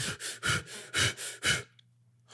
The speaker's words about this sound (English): but he need to turn his system up so, the, so the, the faster breathing, the, the hyperventilation breath tells your body, it cues your body, which segue, segues into our, our next um, peak performance tool. It cues the body, which cues the mind